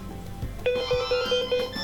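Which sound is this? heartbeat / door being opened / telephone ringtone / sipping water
telephone ringtone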